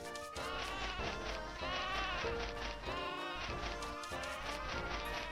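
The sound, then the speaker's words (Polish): Loud, nasal calls of a single duck fill the whole stretch, a dense run of overlapping harmonic squawks with brief dips between bursts and no talking. “Już słyszę jakąś kaczkę.”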